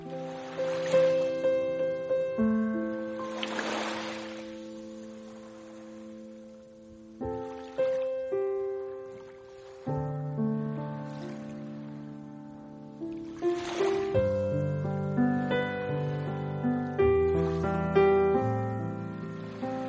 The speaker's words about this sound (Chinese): 然后呢，浅浅的钢琴进入，依然配合着海浪，不知不觉就被这个钢琴的温柔所覆盖。